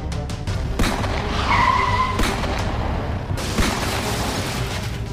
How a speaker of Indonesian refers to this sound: Ada tiga motor jatuh